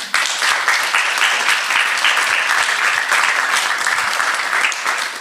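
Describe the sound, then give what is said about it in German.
Sustained clapping from a crowd at an event, applauding in thanks to two people, fills the whole stretch, dense and steady at an even volume, with no one speaking over it. “Ihr dürft applaudieren.”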